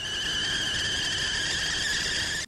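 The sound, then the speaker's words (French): A steady, piercing high-pitched ringing tone, like tinnitus in the ears, holds constant for a couple of seconds over faint low hiss before cutting off abruptly. “Lucie nous parle de la dissonance par le prisme de la musique les acouphènes dans l'oreille”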